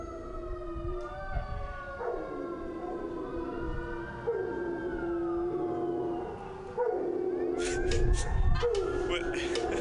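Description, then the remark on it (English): Several dogs howl together in long, wavering, siren-like tones that rise and fall and overlap. The chorus carries on steadily throughout, with some rougher noise and barking-like bursts toward the end. “this is dog's park.”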